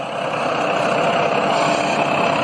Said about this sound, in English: Check this out. It's nuclear waste truck and caravan rolling through my neighborhood.